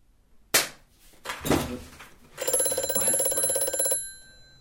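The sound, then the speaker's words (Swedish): Two sharp knocks or bangs come first, then a loud, rattling telephone bell rings for about a second and a half before cutting off; no one speaks. “Nej, nej, det kommer från telefonen.”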